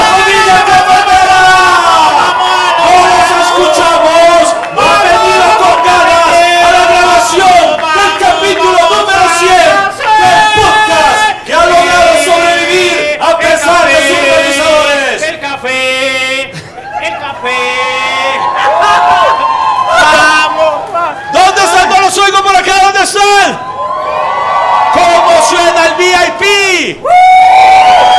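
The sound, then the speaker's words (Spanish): A large crowd in the central stand (gallinero central) chants "Vamos, vamos, cafetero" loudly and continuously in unison as it is recorded, voices rising and falling in a rhythmic, sing-song pattern with occasional shouts, sustained for the whole stretch without pause. “¿Cómo suena el gallinero central?”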